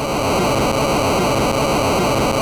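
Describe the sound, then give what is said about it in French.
A steady, harsh hiss of chiptune white noise from the noise channel of a PSG (Programmable Sound Generator) sound chip, which has three sound channels and one noise channel, fills every moment, loud and unbroken, with a faint buzzy, tonal edge and no voices. “et un canal de, bruit.”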